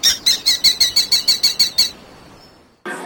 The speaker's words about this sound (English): To tell, they took birds in the mines with them. If the birds stopped singing, that means they were dead.